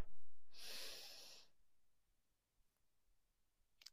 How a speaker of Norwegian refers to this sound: Så vi puster inn en gang til.